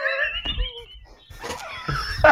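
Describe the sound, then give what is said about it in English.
A dog whines and moans in a series of high, drawn-out, wavering cries, with some low rumbling movement noise between them. “being a bad dog.”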